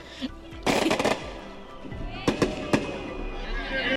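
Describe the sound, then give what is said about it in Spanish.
Loud gunshot-like bangs: a rapid burst of cracks early on, then three sharp separate shots a moment later, over a steady background hum. “¿Y después, vamos con los tiros?”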